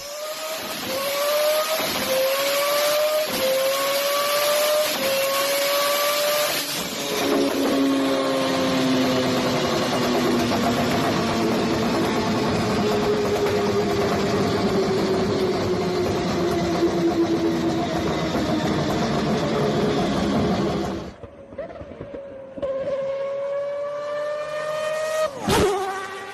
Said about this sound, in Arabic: فاصل روتري فاصل روتري خليهم يسمعوا ار اكس 7 ار اكس 7